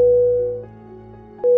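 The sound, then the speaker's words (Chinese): An aircraft cabin chime signalled from the cockpit sounds as a steady electronic tone that fades, then rings again about a second and a half later, moderately loud with no voices. It alerts cabin crew to the cockpit silence period, from takeoff until climbing to 10,000 feet and when descending below 10,000 feet to land. “这个声音其实是在提醒空服员，在飞机起飞一直爬升到一万英尺以前，以及飞机准备降落，即将进入一万英尺以内这段时间，属于驾驶舱的静默程序。”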